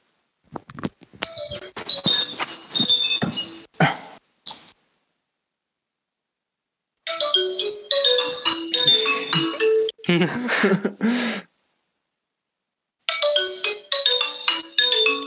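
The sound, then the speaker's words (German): A mobile phone ringtone plays a bright, busy electronic melody in three loud bursts with short pauses between them, with a brief laugh heard along the way. “Hier klingelt irgendein Handy.”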